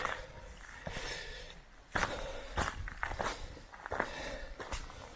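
Steady footsteps crunch up a hiking trail, about one step per second, with faint outdoor background and no talking.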